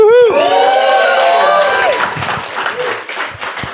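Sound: applause and cheering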